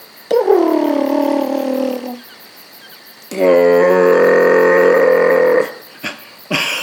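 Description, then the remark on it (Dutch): A voice imitates a purring rumble by vibrating inside, in two long, buzzing hums: the first sinks in pitch over about two seconds, the second holds steady and loud, followed by a couple of short noises. “misschien moet je ronken. Wat is dat? Dan, dan moet je zo van binnen wat trillen.”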